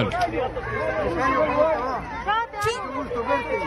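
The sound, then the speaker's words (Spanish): A crowd of excited children's voices chants and shouts the name of the candidate Figueres together, overlapping in a loud, continuous babble with rising, sing-song calls. “los chamacos decían: ¡Conocimos a Figueres!”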